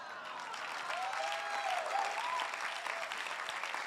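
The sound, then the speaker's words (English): A crowd applauds steadily with dense clapping, a few voices whooping and shouting over it, sustained at a fairly even level throughout. “I'm going to give you an opportunity to get happy again because I like clapping and shouting.”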